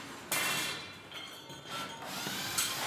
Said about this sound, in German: Ein paar Minuten, Schweißtropfen und Hammerschläge später ist die Wohnung praktisch leer.